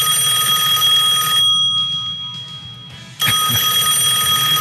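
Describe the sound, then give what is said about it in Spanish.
A telephone rings loudly in two bright, steady electronic bursts separated by a short pause, with no talking over it. “No, sí, ya, ya escuché que es el teléfono, pero la vamos a tomar.”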